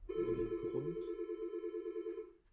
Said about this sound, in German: Das war die Klingel. Nein, das Telefon. Das Telefon.